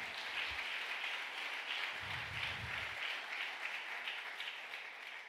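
A crowd applauds Jehovah of hosts steadily for about five seconds, a dense, even wash of many hands clapping at once at a fairly loud, constant level with no voices.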